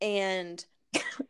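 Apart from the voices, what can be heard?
a person coughing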